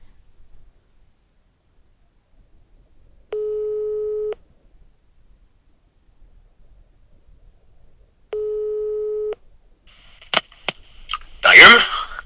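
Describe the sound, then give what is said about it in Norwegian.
Two long beeps of a telephone ringback tone, each lasting about a second with a few seconds of quiet between, followed by sharp clicks and a brief burst of noise as the line picks up. “Da skal vi ringe”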